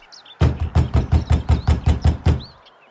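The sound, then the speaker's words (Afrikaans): A steady run of about ten firm, loud knocks on the wooden front door of a family home in Johannesburg, evenly spaced, with faint birdsong chirping in the background and no one speaking. “Daar's 'n klop aan hulle voordeur en Dani se ma maak die deur oop.”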